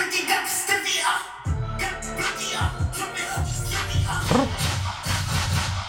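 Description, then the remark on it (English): A loud rap track with booming bass kicks in, punctuated by sharp gunshot blasts and the metallic clack of a reload effect layered over the beat. “I, I have been missing gunshots and reload noises in rap, so maybe I'm maybe I'm in.”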